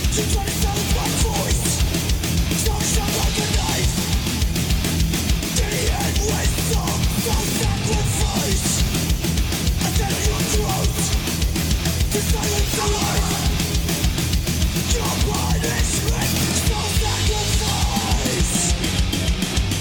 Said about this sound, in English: That's a fucking killer riff. That is a killer riff. And that and those screams, my goodness.